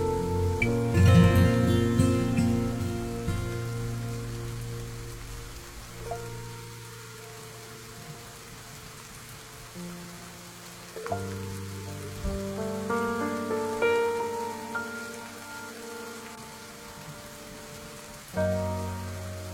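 Steady rain patters and hisses throughout at night, blended with soft, sustained musical chords that shift every few seconds. No one speaks.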